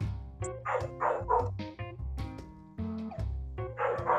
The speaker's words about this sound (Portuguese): É os cachorros da vizinhança que tá, estão latindo sempre aqui.